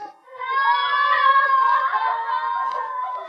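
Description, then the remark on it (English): A single long, wavering scream in the night rises and holds for about three seconds, high-pitched and sustained with no talking around it. “Do you hear? They scream sometimes like that in the night.”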